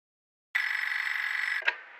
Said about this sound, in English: Ringing Murray Hill 40098.